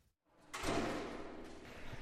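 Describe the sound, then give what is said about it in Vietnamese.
The heavy iron door of a village bomb shelter in Yonson district is hauled open with a sudden loud clank followed by a long grinding, rumbling scrape that carries on steadily until the end, with no one speaking. “어, 철문 안쪽에 또 철문이 하나 더 있고요.”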